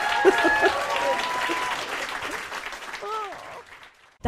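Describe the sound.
An audience breaks into sustained applause, dense clapping that fades toward the end, with a few voices and cheers mixed in over the top.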